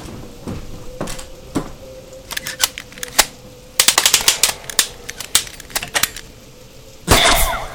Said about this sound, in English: Oh, what the hell was that? Calm down! That was the umbilical. We launched it across so they can attach it on their end. Otherwise, the skiff wouldn't have anything to pull on.